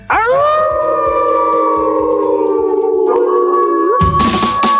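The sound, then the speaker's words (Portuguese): Several voices let out a long, loud, sustained wolf-like howl together, rising at the start, holding steady, then breaking into a brief scrambled burst at the end. “Eu quero aquele mesmo uivo do começo do episódio, bem animado”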